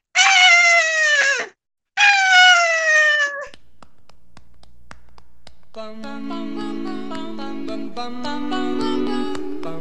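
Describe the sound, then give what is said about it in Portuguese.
A voice imitates a crying koala with two long, loud, wailing cries that slide downward in pitch, separated by a short pause. A few seconds later, music with a steady beat starts. “aí um koala derruba o koala da, da árvore, e o koala fica triste, começa a chorar. Só que o koala chorando assim.”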